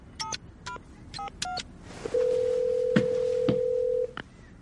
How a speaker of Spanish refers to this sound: Un anuncio reza, servicio de limpieza. No hay trabajo demasiado difícil. Llama por teléfono.